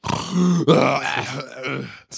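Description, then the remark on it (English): A person imitates their own loud snoring while asleep with a rough, throaty drone: one short snort, then a longer rasping grunt-like breath that wavers and fades, fairly loud, with no talking. “It's uh, it's different than when I'm sleeping because you guys know me to sleep like”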